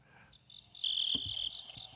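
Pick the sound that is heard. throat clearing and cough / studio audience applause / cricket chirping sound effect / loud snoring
cricket chirping sound effect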